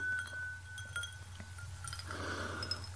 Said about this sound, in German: Und als letztes, und auch das kommt dir vielleicht komisch vor, aber ich stoße jetzt überhaupt, jetzt stoße ich einfach überhaupt nochmal an, ne? also auf euch, auf euch Hörerinnen und auf die Expertinnen. Prost, ihr Lieben.